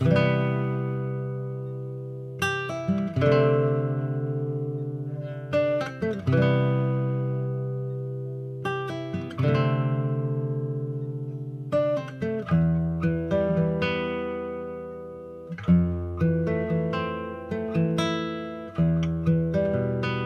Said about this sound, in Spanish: Ahora vamos a escuchar una canción